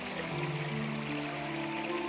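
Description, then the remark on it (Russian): Steady rushing of stream water flowing close by, at the foothills of the Nevo and Abarim mountains, a continuous broad wash of sound with no pauses, and a faint low tonal hum running underneath. “Ну, сейчас уже возле ручья.”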